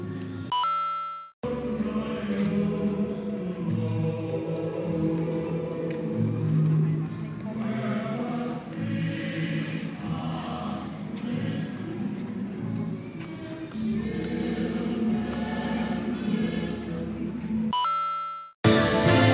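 Christmas songs play continuously at the Christmas Wonderland outdoor light show, among trees with lights in a tropical climate. Bright, chiming bell-like tones ring over a full, steady backing, while a crowd murmurs underneath throughout.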